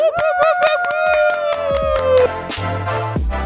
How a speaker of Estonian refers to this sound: nii et pange käed kokku, tehke kõvasti lärmi.